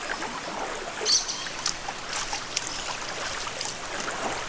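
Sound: rushing waterfall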